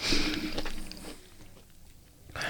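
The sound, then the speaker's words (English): Crunchy chewing of a Blue Magic fruit bowl with coconut, pineapple, mango and spirulina: a cluster of loud bites at first, a quieter stretch of softer mastication, then another crunch near the end. No talking. “Can you hear me crunching?”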